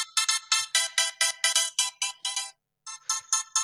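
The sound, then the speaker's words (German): A fire brigade pager alert blares in rapid, shrill electronic pulses, about a dozen in quick succession, pausing briefly before resuming, loud with no voices. “Ey, das, also ich finde den Melder schon ähm, einsame Klasse.”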